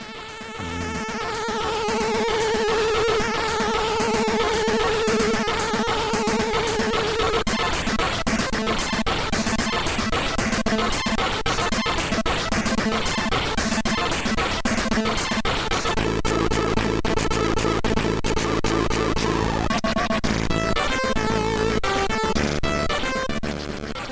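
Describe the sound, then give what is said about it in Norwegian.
Commodore 64 game music from Trust, a chiptune drum solo of rapid, buzzy noise hits over steady synth tones, loud and continuous throughout, growing denser and heavier toward the end. “Det var først jeg hørte en trommesolo i et Commodore 64-spill.”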